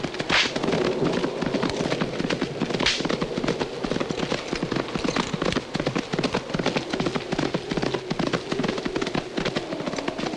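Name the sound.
horses galloping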